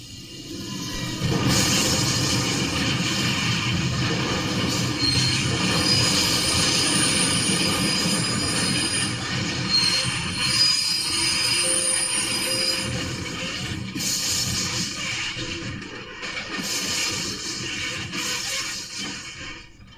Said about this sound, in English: but it was a train derailing. It was my train of thought derailing.